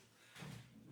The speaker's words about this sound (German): Ich versuche den Stuhl mal leise wegzumachen.